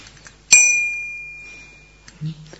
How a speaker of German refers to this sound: Hier ist eine Glocke. Und ihr sollt jetzt zählen, wie oft die Glocke BIM macht.